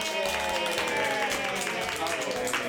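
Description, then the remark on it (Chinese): Steady applause runs for a couple of seconds, a dense patter of many hands clapping at once, mixed with voices cheering and talking over it. “那最后的呢，要现场我们今天第十集的来宾，我们的资深共感系人类，给自己掌声跟鼓励，好不好？”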